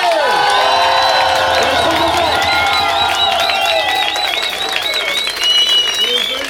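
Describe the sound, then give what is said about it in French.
A concert crowd bursts into loud, sustained applause and cheering for a band's first album, with high whoops and shrill whistles rising above steady clapping for several seconds. “Faites du bruit pour notre premier album, s'il vous plaît”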